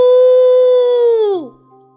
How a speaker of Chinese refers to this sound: 霸王龙吼叫着